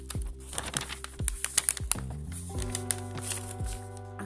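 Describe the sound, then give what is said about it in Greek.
A small sheet of paper with written notes is crinkled and rustled in quick, irregular bursts, the crisp crackles standing out over a steady tonal background hum or music. “ακουστε λίγο το χαρτάκι μου.”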